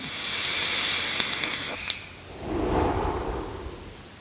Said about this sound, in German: Apropos Zug an der Dampfe, dann muss ich doch tatsächlich mal kurz einen Zug nehmen.